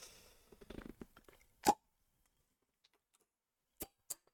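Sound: beer bottle being opened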